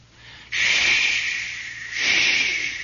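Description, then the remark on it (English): Steady, loud, cutting wind hisses and whistles through a ship's radar dishes overhead, rising abruptly after a quiet start and swelling again in a second strong gust, with no voices. “And you could hear that wind hissing and whistling through those radar dishes just above us.”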